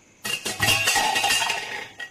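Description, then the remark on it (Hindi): Metal utensils crash and clatter onto a hard floor in a quiet mansion at night, a burst of bright ringing clinks that rattles on for over a second before settling, followed by one last small clink. “सो रही थी कि तभी उसने फिर से बर्तन गिरने की आवाज सुनी”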